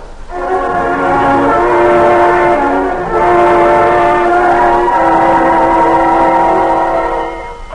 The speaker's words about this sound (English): Oh, there goes the all clear now.